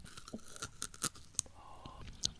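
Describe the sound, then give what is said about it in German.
Crisp crunches from someone biting into and chewing raw ginger: a handful of sharp, irregular snaps over soft mouth noises, fairly quiet, with no talking. “Ähm, einfach mal reinbeißen.”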